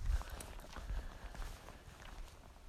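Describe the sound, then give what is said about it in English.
Steady footsteps crunch along outdoors at a walking pace, with low rumbling and faint background noise throughout. “Walking and talking.”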